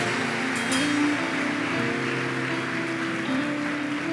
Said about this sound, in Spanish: Muy bien, aplausos de felicitación a aquellos que han invitado a Cristo a sus corazones.